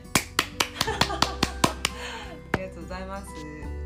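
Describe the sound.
A quick run of about nine sharp hand claps in a steady rhythm, then one last clap after a short pause, close and crisp, with people talking softly underneath.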